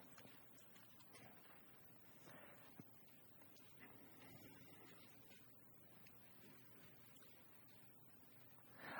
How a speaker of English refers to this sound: I love the sound of the turning pages. Beautiful.